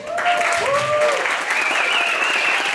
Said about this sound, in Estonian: suur aplaus siis alustuseks meie vastne doktor